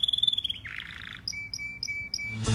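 A small yellow bird chirps: a quick trilling run followed by a series of short, evenly spaced high tweets, bright and clear with no voices.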